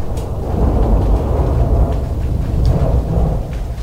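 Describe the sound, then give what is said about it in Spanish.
A long, deep rumble of thunder from a rainstorm rolls continuously, heavy in the low end and steady in loudness, with faint crackles above and no voices. “¿Hay el ruido de la tormenta? ¿Se sigue sonando. El trueno.”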